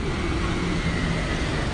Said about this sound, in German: hier erledigen gerade einige Müllabfuhren ihren Job.